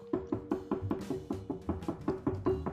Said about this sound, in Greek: Και βαράει με δύναμη. Και βαράει και βαράει και δεν ανοίγει η πόρτα.